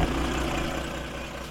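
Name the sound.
tractor engine driving away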